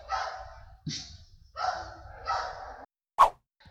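animal, several dogs barking

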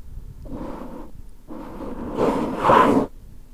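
household object, bottle being opened

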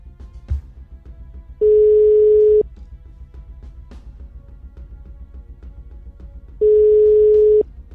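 signal or alarm, phone call ringing tone

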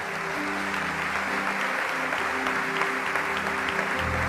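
crowd, audience applauding

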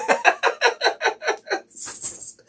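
bird, rooster crowing

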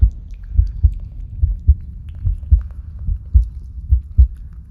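sound effect, heartbeat sound effect

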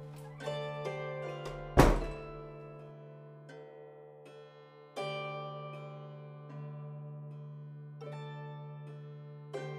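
household object, door closing shut

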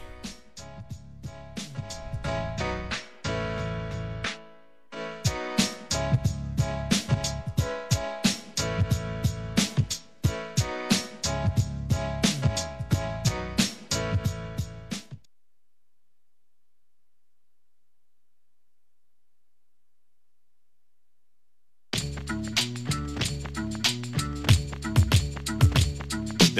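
song intro music playing

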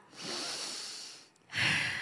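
human body sound, deep breath in and

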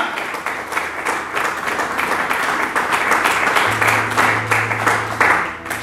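crowd, audience applauding loudly

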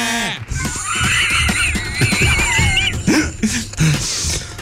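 animal, sheep bleating

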